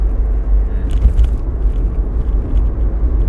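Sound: car interior ambience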